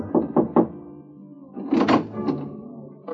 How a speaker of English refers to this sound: Your mood right now is for a little private chatter, and you rub your knuckles against the door marked four.